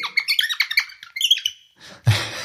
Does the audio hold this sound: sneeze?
no